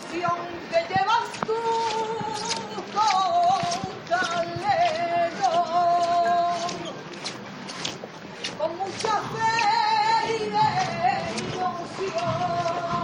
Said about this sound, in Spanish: El rechinar de las zapatillas sobre el suelo impregnado de cera por las hermandades que han pasado ya por aquí os dan una idea del paso que está siguiendo el Santísimo Cristo del Amor Bueno.